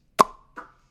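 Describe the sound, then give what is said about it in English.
A sharp suction pop rings out, followed by a softer second pop about a third of a second later, each with a brief hollow ring, isolated with no talking. “When it comes out, it probably sounds like. Mm. Like there's probably a suction.”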